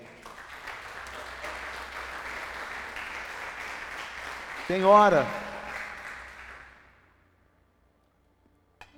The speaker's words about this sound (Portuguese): Dá um aplauso aí.